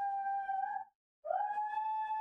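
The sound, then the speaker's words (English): A dog, Alfred, lets out two long, sustained siren-like howls separated by a short pause, loud, mimicking a siren driving by outside, with no talking. “When a siren drives by outside, that's what he does.”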